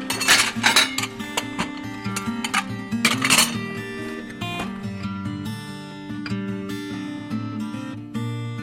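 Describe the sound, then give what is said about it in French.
Dishes clink and clatter repeatedly as crockery from about 5 metres of crates is handled and sorted at the RETAP ressourcerie in Bourg-en-Bresse, with bright ringing knocks of crockery and glass, busiest early on and settling into lighter clinks. “on a à euh, peu près 5 mètres de caisse euh, remplie de vaisselle”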